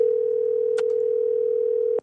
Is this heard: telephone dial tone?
yes